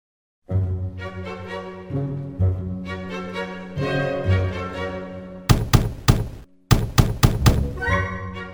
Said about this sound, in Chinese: 敲门声越来越大声，滚丝坐立不安地说：“ 呃，谁呀？”“ 滚丝吗？是我，波顿啊！怎么不开门让我进来啊？”